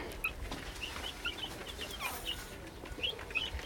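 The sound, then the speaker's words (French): A crowd of 26 three-week-old chicks peeping constantly, with many short, high-pitched chirps overlapping over a low background rumble, steady throughout. “Moult pui, ça veut dire qu'il y a beaucoup de petits poules.”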